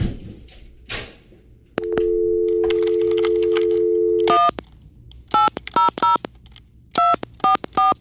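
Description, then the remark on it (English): A steady phone dial tone hums for a few seconds, then stops, followed by a quick run of short, bright touch-tone dialing beeps in uneven bursts as someone dials *67 to call McDonald's, clear with no talking. “it's supposed to be Star 67.”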